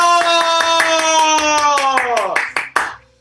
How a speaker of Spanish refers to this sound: ¡Aplausos!